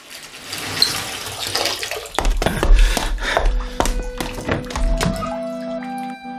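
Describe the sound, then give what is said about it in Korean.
Water runs steadily from a faucet for a couple of seconds, then a series of hollow clunks and knocks sound as the faucet is turned off, leaving a low droning pipe hum. “수도꼭지를 잠그고 서둘러 자리를 떠야 했다.”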